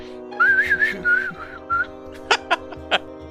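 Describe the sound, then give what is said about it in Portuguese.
A person whistles a short, wavering tune for about a second and a half, followed by a few quick breathy puffs like stifled snickers. “Uma Fênix ele olha pro canto assim e assobia.”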